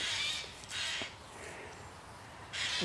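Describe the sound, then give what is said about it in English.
A crow caws three times, harsh rasping calls with two close together and a third after a pause, heard alone over a faint outdoor background. “I don't know how to say crow and I thought I knew how to say it.”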